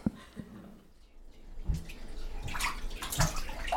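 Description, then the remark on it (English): Bath water splashes and sloshes in irregular bursts as a five-month-old baby is bathed at night, quiet at first and then growing busier and louder, with small drips and swishes in between and no talking. “Every night, my husband bathes my five month old.”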